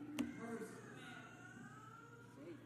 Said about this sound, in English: What is Jesus most concerned about right now? That siren going down the street?